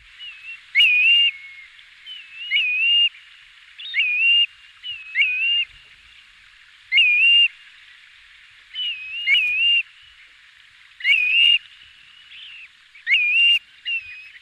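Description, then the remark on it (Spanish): A fluting bird call heard in nature at dusk as the light fades, carrying from far away, repeats again and again, each clear whistled phrase rising and dipping in pitch, spaced by short pauses in a steady rhythm, with no other sounds. “sonido muy aflautado, muy mm. característico. Eso se tiene que escuchar de lejos.”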